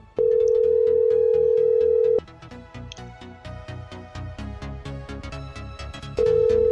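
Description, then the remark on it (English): A telephone busy signal sounds as a steady, loud electronic tone, breaking off after about two seconds and returning near the end, over a quick rhythmic pulsing backing. “Your call has been forwarded to an no, automatic voice.”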